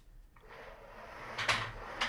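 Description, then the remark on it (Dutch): A chair scrapes across the floor in a drawn-out, grinding slide that rises to two louder scrapes near the end, with no one talking. “Ik ga mijn stoel aanschrijven.”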